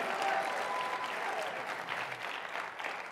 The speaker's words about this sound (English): If you believe that, clap your hands and give God a mighty shout of praise. Oh, hallelujah! Hallelujah!